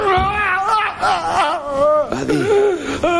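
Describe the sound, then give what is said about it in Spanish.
A person cries and sobs loudly, with wavering, high-pitched wails rising and falling continuously for a few seconds, breaking briefly between drawn-out moaning sobs. “Perdona, ya no hace falta que sigas llorando.”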